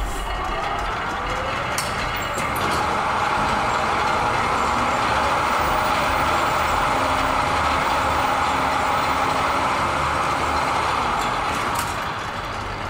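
A cotton spinning machine, which twists cotton into thread while moving forward and backward in a sweeping motion, runs loudly and steadily, a dense mechanical roar with faint rhythmic clattering on top, holding an even level throughout with no voices.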